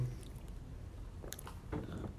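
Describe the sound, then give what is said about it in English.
A drink being sipped, with a couple of brief wet slurping and swallowing sounds over a low background rumble, no one speaking. “That was a sip, sir.”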